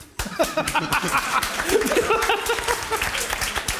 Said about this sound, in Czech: Nej, nejvíc tleská svobodná matka v první řadě. To je fantastický. To je... Mladá svobodná matka.